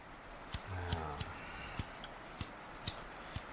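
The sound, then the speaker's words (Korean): A lighter clicks repeatedly without catching as someone tries to light a cigarette, sharp dry snaps spaced roughly half a second apart, against a faint hum and a brief low murmur. “에이 진짜 라이터까지 말썽이야 담배도 못 피게”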